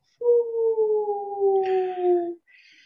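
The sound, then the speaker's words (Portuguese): A voice imitates a whale call: one long, low, moaning tone sliding slowly downward for about two seconds, fairly loud, followed by a faint breathy hiss. “Eu já comecei a ouvir um barulho de baleia, assim.”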